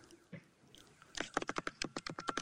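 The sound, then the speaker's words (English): Quick, uneven keystrokes clatter on a computer keyboard, a burst of roughly a dozen crisp clicks after a brief quiet lead-in, with no one talking, as someone types to look up an anime title. “you just hear Hoover tapping on the keys”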